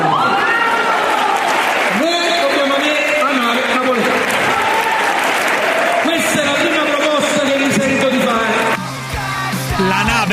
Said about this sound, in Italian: C'era gente che lo applaudiva, pazzesco, evidentemente pazzesco, qualcuno la pensa come lui. Pazzesco, pazzesco. Però c'era degli applausi sì, sotto.